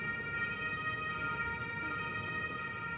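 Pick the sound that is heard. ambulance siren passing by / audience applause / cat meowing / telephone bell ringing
ambulance siren passing by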